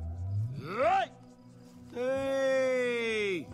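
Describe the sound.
A man calls out to pigs with two loud vocal cries: a short rising whoop, then after a pause a long, sustained drawn-out holler that falls off at the end.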